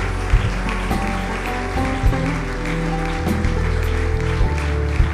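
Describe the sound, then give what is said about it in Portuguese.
A crowd claps steadily to applaud God after a prayer, a dense patter of many hands mixed with sustained music underneath, with a few sharper thumps standing out. “Vamos aplaudir nosso Deus.”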